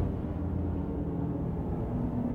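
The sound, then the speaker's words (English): A steady, low droning rumble of an airplane flying overhead, continuous and fairly loud throughout, with no voices over it. “As I'm being interrupted by this damn plane.”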